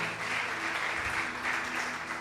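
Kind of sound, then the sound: crowd, audience applauding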